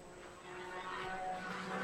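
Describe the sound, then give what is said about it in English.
A race car engine roars past, a steady buzzing drone that swells louder partway through and stays loud, with no voices over it: the Claudius V car, racing in the Porsche category of a SimRC Cup 2 sim race. “Uh, the Claudius V car coming through.”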